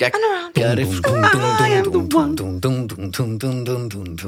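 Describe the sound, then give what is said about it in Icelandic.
A pop song plays loud, a steady, pulsing bass line driving it beneath a singing voice and a crisp, regular drum beat. “Er þetta besta bassalína bara allra tíma?”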